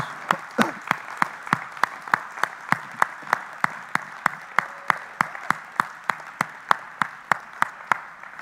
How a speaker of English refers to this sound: Why don't you just hiss the enemy away by the clapping of your hands? And we just serve notice on that today.